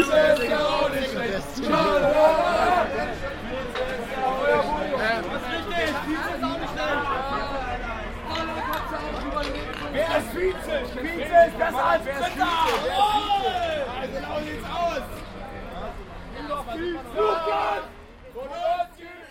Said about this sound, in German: Es gab nämlich die Europameisterschaft und mhm. natürlich gab es auch in diesem Jahr wieder so Public Viewing und ähm, grölende Fußballfans